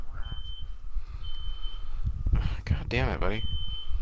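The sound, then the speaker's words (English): A fire alarm sounds a repeated high-pitched electronic beep in steady, drawn-out pulses, while a man speaks over it amid low background rumble. “fire alarm for some reason.”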